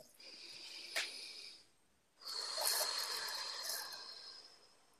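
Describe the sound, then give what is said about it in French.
A slow, deep breath, with an airy inhale of about a second and a half, a short pause, then a longer, steady, hissing exhale. No voices. “Alors, une respiration.”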